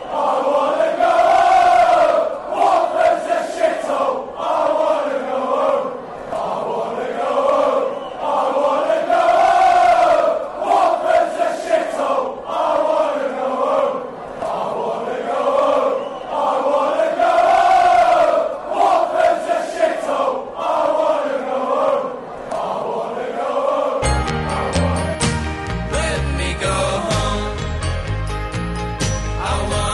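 A huge football stadium crowd of Leicester City supporters chants loudly in unison, voices rising and falling in a steady rhythmic swell, before a brief musical jingle cuts in near the end.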